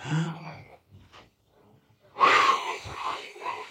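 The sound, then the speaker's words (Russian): After a brief voiced sound and a short pause, someone takes a slow, deep, audible breath as part of a breathing exercise, loud and airy with a slightly wheezy rasp. “И вы делаете 10 медленных, глубоких вдохов и выдохов.”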